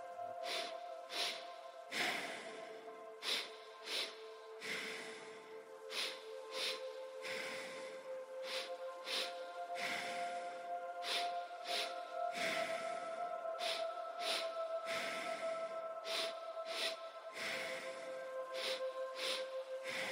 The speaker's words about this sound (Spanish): En segunda, una inhalación corta y rápida, expandiendo el pecho. Por último, una exhalación lenta, contrayendo el abdomen. Repetirás por 30 segundos, dando un tiempo en cada inhalación y dos tiempos en cada exhalación. Comienza ahora.